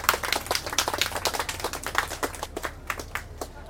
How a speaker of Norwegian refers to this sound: Jeg tror vi skal gi henne en liten applaus og ønske henne velkommen eh, fram her.